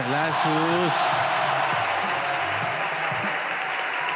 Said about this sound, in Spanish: Muchas gracias. Ovación de pie. ovación de pie.